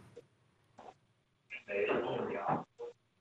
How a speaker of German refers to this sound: Hallo, hallo. Okay. Da räumt jemand gerade irgendwas auf.